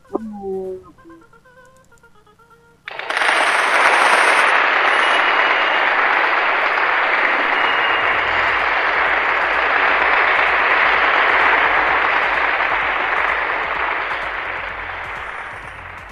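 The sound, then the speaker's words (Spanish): Applause after a poetry reading on the radio station Bata CM Radio Poblano: after a few seconds of faint tonal sound, loud, dense applause bursts in and continues steadily for over ten seconds, tapering off slightly toward the end. “¡Aplausos, por favor!”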